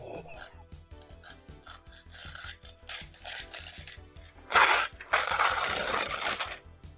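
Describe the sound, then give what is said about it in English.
Paper is torn: light rustling and small rips at first, then two long, loud rasping tears near the end. “Uh, that's a very large tear.”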